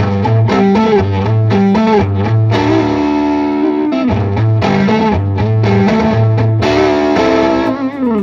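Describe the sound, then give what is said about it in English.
An overdriven electric guitar with the tone knobs turned all the way up, bright and full, plays a loud, continuous riff of sustained chords and bent notes in a Hendrix-like style, thick with distortion and harmonics, with no voices over it. “If you want more, you can you just turn the tone knobs all the way up. You just turn everything up, and you've got the full the full game.”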